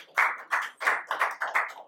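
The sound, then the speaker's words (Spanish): A church audience applauds the King of Kings and Lord of Lords, the clapping coming in a steady, rhythmic pulse of about six bright, full bursts, with no voices over it. “alguien puede darle otro aplauso al Rey de Reyes y al Señor de Señores.”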